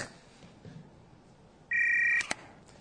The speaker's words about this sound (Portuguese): Traga o celular pra ele aqui. Tocou o celular.